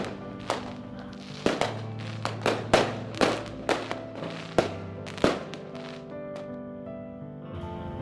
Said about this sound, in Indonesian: Ada ledakan lagi, dan bintang muncul di langit malam. Bukan bintang, kembang api kata salah satu hyong kami.